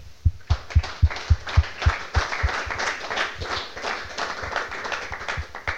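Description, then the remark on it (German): An audience claps, starting with a few loud, evenly spaced claps that quickly swell into a dense, steady applause from many hands, with no one talking over it. “Das ist ein Applaus.”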